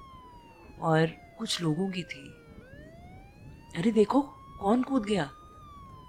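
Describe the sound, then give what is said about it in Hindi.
A police or ambulance siren wails steadily at Begalpur station on a rainy day, its pitch sliding slowly down and then swinging back up, while people talk excitedly over it in two bursts. “वो दिन बेगलपुर स्टेशन की उस शांति में एक हलचल ले आया था पर वो हलचल कहीं पुलिस की कहीं एम्बुलेंस की”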